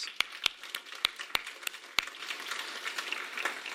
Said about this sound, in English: So, everybody else in the room, would you give them a round of applause?